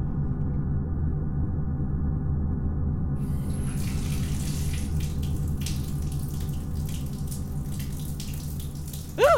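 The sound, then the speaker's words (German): A tap runs steadily with warm water in a full, rushing flow, continuous for the whole stretch, with a brief louder splash or squeak right at the end. “mach das warme Wasser wieder an.”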